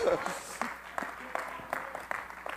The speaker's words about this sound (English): Come on, clap your hands unto the Lord again. Thank you, Lord.